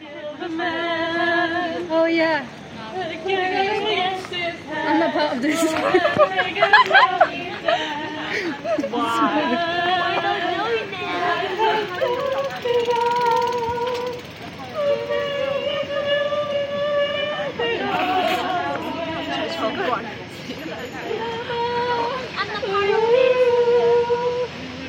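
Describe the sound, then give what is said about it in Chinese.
Two tipsy women, one English and one Austrian, sing loudly and rowdily while walking home with fellow exchange students after a party at Hosei University, heading to catch a ride; their voices hold wavering, sliding notes in a continuous, energetic stream that lasts the whole time. “到法政大学交换的时候，第一次那一期的全部的交换生的第一个派对结束后，走回家的路上， 我们几个住在平井的宿舍的外籍生一起走去搭车的时候，喝醉的英国姐姐还有奥地利姐姐在很嗨的唱歌的声音。”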